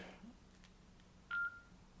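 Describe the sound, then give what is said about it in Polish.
A single short electronic beep from a mobile phone's keypad as the phone is being switched off, preceded by a couple of faint clicks, with a low background hum. “Ja może wyłączę telefon, żeby nam tutaj w podcaście nie przeszkadzał.”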